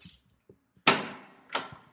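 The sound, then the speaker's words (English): A door being unlocked as someone sets out on a walk: two loud, sharp metallic clunks about half a second apart, each ringing briefly before fading, with faint soft rattles just before them and no talking. “Unlocking the door.”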